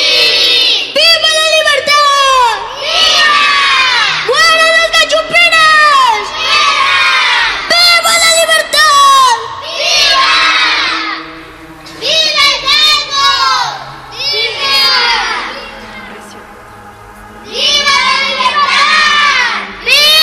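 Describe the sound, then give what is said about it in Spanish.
A crowd of townspeople in Dolores, Mexico, shouts and cheers at the call to fight for independence, in loud, repeated surges, many voices rising together in excited bursts, with brief dips between the outbursts. “Hidalgo con emoción se dirige al pueblo. Ha llegado el momento de buscar lo que tanto anhelamos, la libertad.”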